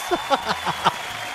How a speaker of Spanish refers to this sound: aplausos para mí, con mucha ayuda.